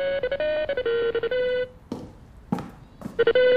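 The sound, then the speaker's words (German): A telephone rings in the morning with a melodic, tonal ringtone, loud, playing a tune for about a second and a half, pausing amid a few soft clicks and rustles, then starting again. “Ihm würde noch eine Menge mehr einfallen, würde in diesem Moment nicht sein Telefon klingeln.”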